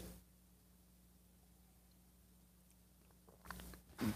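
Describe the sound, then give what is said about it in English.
A short slurping sip of a hot drink near the end, following a few seconds of quiet room tone with a low electrical hum. “That was exactly the right amount of slurp slurp to sip.”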